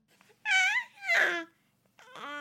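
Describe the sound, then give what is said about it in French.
A newborn baby gives its first cries in Paris: three short, high, wavering wails with brief pauses between them, fairly loud, with no one talking. “Et oui, bravo C'est à Paris que Kylian a poussé ses premiers cris.”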